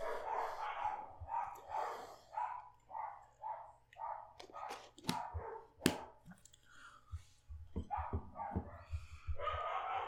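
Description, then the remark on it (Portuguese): Several dogs bark repeatedly in quick, uneven bursts, some yips mixed in, loud, with a low steady hum underneath throughout. “Os cachorros estão latindo, viu?”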